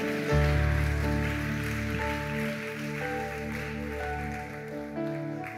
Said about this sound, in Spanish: Alguien puede glorificar el nombre de papá, alguien puede darle un fuerte aplauso al rey.